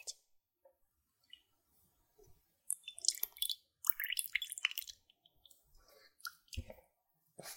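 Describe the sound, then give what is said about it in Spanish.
Milk being poured onto cereal, with soft splashing and crackly, wet patters that come in uneven bursts over several seconds, then a final thump. The sound is fairly quiet and no one speaks. “Voy a echarle la leche.”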